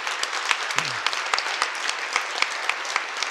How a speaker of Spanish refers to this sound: Pero todo el staff lo cumplió. un aplauso grande para nuestro staff, la verdad.